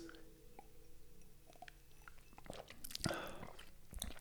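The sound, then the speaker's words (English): Quiet mouth sounds of someone sipping straight rye whiskey: small wet slurps and lip smacks, with a slightly louder gulp near the middle, over a faint low background hum. “Cheers. Let's, let's take a sip.”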